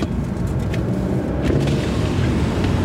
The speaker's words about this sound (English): I've got a car here behind me. As soon as that car goes by, we'll head that way.